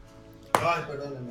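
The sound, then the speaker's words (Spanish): A single sharp snip of scissors cutting open a milk carton, fairly loud, followed by a brief crinkly rustle of cardboard before fading back to quiet. “está usando unas tijeras para ah. picar la leche.”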